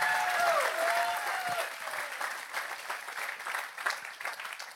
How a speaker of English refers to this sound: Come on, if you're gonna clap, give God a good hand clap today.